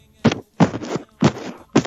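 Someone tapping on a microphone makes four loud thumps in an uneven rhythm, one drawn out slightly longer, with quiet gaps between and no voices.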